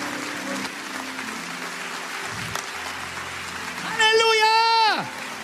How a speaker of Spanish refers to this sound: Vamos a celebrar al Señor. ¿Qué le parece con un aplauso cerrado a los cielos? Un aplauso grande, poderoso a esos cielos que jamás, jamás te dieron la espalda.